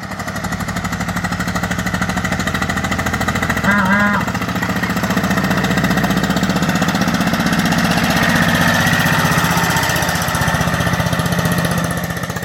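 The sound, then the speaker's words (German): An old Deutz D15 tractor engine runs steadily, a loud, rapid chugging pulse that holds constant throughout with a faint tonal chirp briefly cutting through near the start. “Hören wir nun den Deutz D15 von Winfried, der auf den Namen Robert hört.”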